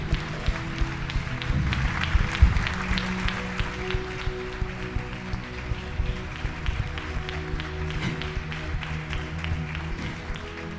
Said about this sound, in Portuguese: E dê um lindo aplauso pro oleiro.